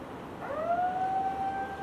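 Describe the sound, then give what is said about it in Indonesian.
An alarm siren sounds in a housing complex. It winds up and holds a steady, piercing wail, rising in pitch then sustaining over a faint background hiss, with no voices. “Tuh, ini penting sampai ada alarm tuh bunyi iya, di komplek.”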